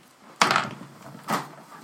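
Two heavy bangs on a door, nearly a second apart, each a loud, close thump with a short wooden rattle and no voices.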